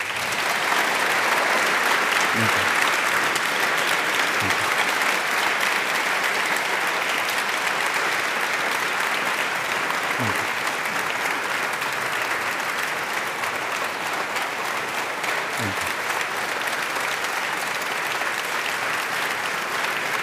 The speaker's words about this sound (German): Sparen Sie sich noch ein bisschen Beifall auf, denn wir müssen natürlich auch nochmal ausdrücklich sagen, Herr Botschafter, herzlichen Dank, dass Sie gekommen sind ähm, in diesen so existenziellen Tagen für Ihr Land.